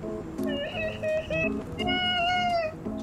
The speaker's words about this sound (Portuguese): Vocês estão em direção ao Reino Doce, vocês estão nas montanhas, vocês começam a escutar um choro muito alto, distante, à medida que vocês se aproximam de uma montanha, que é o caminho de vocês. É um choro de mulher.